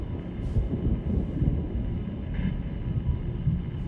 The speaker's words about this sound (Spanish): No sé, ha sonado como... Yo acabo de oír un trueno. ¿Es eso? Sí, creo que sí.